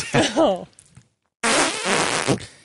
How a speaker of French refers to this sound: tu sais qu'on avait des bruits de pète en banque, hein?